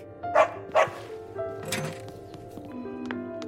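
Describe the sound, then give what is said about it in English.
A dog lets out two quick, sharp barks, followed by a softer huff and some faint background rustling. “good dog.”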